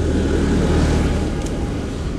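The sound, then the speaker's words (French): A heavy tractor engine rumbles on a very windy day, a steady low droning growl that holds for a couple of seconds as it passes, with no voices. “Mon chien n'est pas passé sous le tracteur, c'est que du bonheur.”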